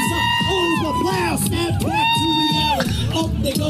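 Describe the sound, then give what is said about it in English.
A large crowd at the Iowa State Fair cheers and shouts over loud amplified music as Vivek Ramaswamy raps on a stage, a dense, steady roar that fills the whole short stretch. “And the crowd seems to be into it.”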